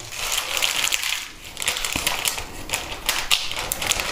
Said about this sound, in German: Die Katzen haben gerade Nassfutter gekriegt. Alle. Mieze frisst noch in ihrem Schlafzimmer.